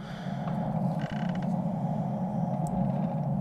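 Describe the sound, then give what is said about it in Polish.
A door creaks in one long, unbroken groan, fairly loud, with a low grinding texture that holds steady for a few seconds, played as a preview of the door volume setting in a game's audio options. No voices are heard. “Tutaj jest głośność drzwi.”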